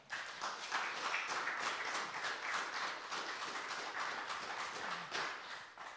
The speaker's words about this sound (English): So perhaps we could just give her a round of applause as she comes up.